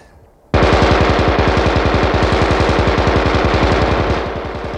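A machine gun opens up after a brief quiet moment and fires a sustained, rapid, evenly spaced burst of loud shots for about four seconds at Russian soldiers retreating across a field, with no voices over it.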